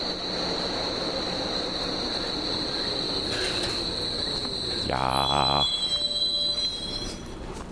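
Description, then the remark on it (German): A DT5 subway train's wheels squeal in a steady high-pitched whine over rumbling rail noise, with a burst of rhythmic clatter midway and a brief spoken word. The weather is about 3 degrees Celsius, with 98% humidity, haze or shallow fog, and a southeast wind. “Und natürlich ist es ein DT5. Der will mir jetzt hier noch ins Mikro quietschen.”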